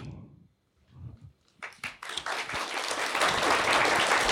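Audience applause starts with a few scattered claps, then quickly builds into dense, steady clapping from many hands that holds at a fairly loud level to the end.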